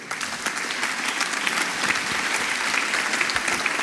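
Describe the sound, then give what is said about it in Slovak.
An audience applauds steadily, dense overlapping claps forming a continuous, fairly loud wash of sound that holds evenly for several seconds without voices standing out. “Môžete zatleskať, přátelé.”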